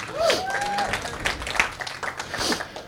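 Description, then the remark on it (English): An audience breaks into a round of applause, dense overlapping claps sustained at a moderate level for a few seconds, with a few scattered voices and a brief whistle-like tone mixed in. “Y'all give Jonathan a round of applause.”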